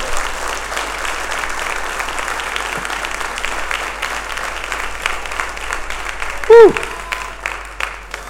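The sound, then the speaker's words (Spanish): An audience applauds the Holy Spirit loudly and steadily, a dense wash of clapping filling the whole clip, with a brief high whistle-like tone cutting through near the end. “Alguien le puede dar un aplauso al Espíritu Santo.”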